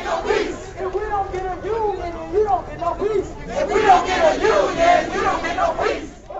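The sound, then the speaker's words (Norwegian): A protest crowd marching in South Carolina to demand 15 dollars an hour and the right to form a union chants slogans such as "If we don't get a union, you don't get no peace" in unison, many voices rising and falling together in rhythmic, shouted phrases that swell louder in the second half, with a steady background murmur. “… gikk fremst i toget og deltok på tilrop som If we don't get a union, you don't get no peace.”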